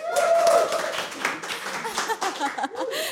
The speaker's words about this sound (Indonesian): Tepuk tangan lagi tuh.